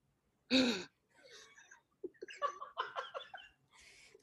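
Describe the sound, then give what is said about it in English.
A voice imitates Neve Campbell's characteristic sharp, startled gasp, one loud sudden intake of breath, followed by a few seconds of breathy, broken giggling and laughter. “It's the quintessential Neve Campbell gasp.”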